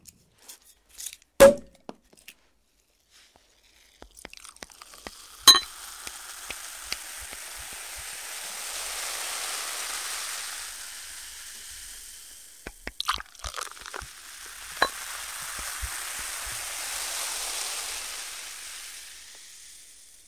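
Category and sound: food or drink, champagne bubbles fizzing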